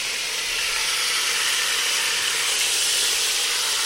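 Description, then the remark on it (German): Hot oil sizzling in a pan: a loud, steady, bright hiss with a fine crackling texture that holds for the whole few seconds, with no voices over it. “So, das Öl ist heiß. Ihr hört das, das tanzt.”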